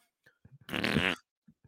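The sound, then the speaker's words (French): A single loud, buzzy fart lasting about half a second, heard during a post-game interview after a 4-0 shutout against the Stars, with a few faint low thumps and mouth sounds before and after it. “Puis à un moment donné, tu quelqu'un péter.”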